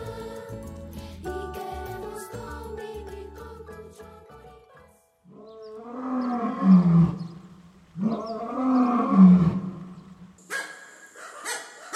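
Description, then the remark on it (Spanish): A lion lets out two deep, rumbling roars in close succession, loud, after a stretch of layered tonal sounds; no one speaks. “¿Podrías diferenciar claramente cada animal que acabas de escuchar? ¿Un lobo quizá? ¿Un león?”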